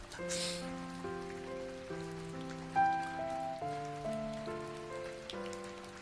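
Steady rain patters beneath soft, sustained chords that change every second or so, the hiss of the rainfall running continuously under the gentle music with no voices.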